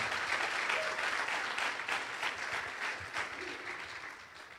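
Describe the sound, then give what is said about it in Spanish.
An audience applauds the Lord loudly, a dense, steady wash of many hands clapping together for several seconds, tapering slightly toward the end. “Que alguien aplauda al Señor. Amén. Fuerte el aplauso.”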